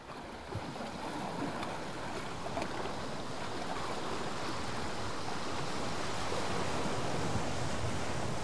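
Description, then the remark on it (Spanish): Steady ocean waves wash against the coast of Jalisco, Mexico, in a continuous, broad rushing roar, with no voices, holding at an even, moderate level throughout. “Las olas impulsan a José Meyer Ibarra a escribir”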